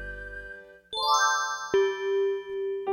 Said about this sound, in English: A bell rang. School was over.